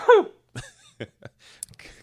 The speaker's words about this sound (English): I gotta sneeze.